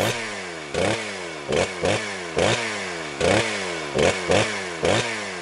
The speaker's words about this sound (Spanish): No me vaya a decir que se le volvió a descomponer la moto.